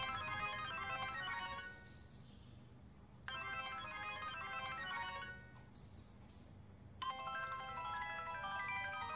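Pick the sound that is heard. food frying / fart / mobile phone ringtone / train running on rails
mobile phone ringtone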